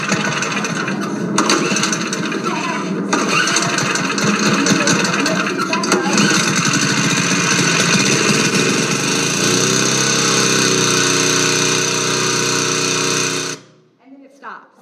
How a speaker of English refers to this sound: Then last weekend, I was mowing the yard. Um, we have a push mower. We have a pretty decent size backyard.